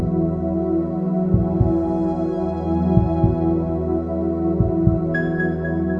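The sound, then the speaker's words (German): A slow, soft heartbeat thumps in low double pulses, about three beats, beneath a steady sustained drone of ambient tones; no one speaks. “Werde dir deines Herzschlages bewusst.”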